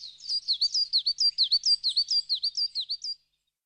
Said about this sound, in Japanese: 一本の木と一羽の小鳥とは大変仲良しでした。小鳥は一日その木の枝で歌を歌い、木は一日中小鳥の歌を聴いていました。